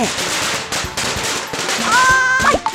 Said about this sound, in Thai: จุดประทัดอีกแล้วยังไม่ทันจะเช้าเลยเนี่ย